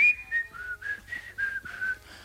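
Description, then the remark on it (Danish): A man whistles a short, wavering tune while wearing a face mask, standing about 5 meters away, a series of clear sliding notes around a steady pitch, moderately loud, with faint low background rumble. “Og bare tænker, hvem fanden står og fløjter? Det der er meget godt fløjtet med mundbind på.”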